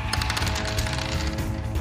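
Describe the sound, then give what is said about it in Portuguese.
Rapid bursts of gunfire crackle in quick succession from a man shooting while crouched, a dense rattling of shots over a heavy low rumble, loud and sustained for the whole moment with no voices. “Você vê que ele atira ali agachado.”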